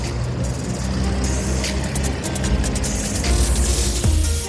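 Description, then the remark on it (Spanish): Steady low rumble of a bus driving, heard from inside, with continuous engine drone and road noise holding at a fairly loud, even level throughout. “Se subió al autobús y durante todo el viaje de 30 minutos sonrió.”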